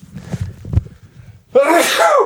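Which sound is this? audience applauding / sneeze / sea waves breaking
sneeze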